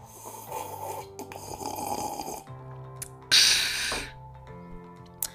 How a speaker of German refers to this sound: …, hör doch mal auf jetzt, so zu trinken. Das ist doch nicht mehr schön.